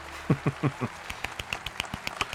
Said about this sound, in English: There is a much more raucous applause at this.